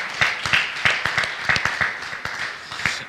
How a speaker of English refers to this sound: His hands are, do you believe God's hands are constantly on you? Clap your hands if you would, if you believe that.